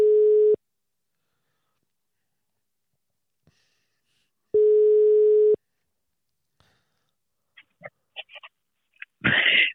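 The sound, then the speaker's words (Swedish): A telephone ringing tone sounds twice: long, steady, buzzing tones several seconds apart with silence between. Faint clicks follow, and a voice starts up at the very end. “Hör du att det ringer? det bara dönar lite grann.”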